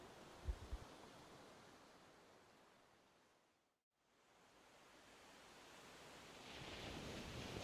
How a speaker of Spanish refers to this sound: Se recostó en un camastro y vio las oscuras olas chocando contra la arena.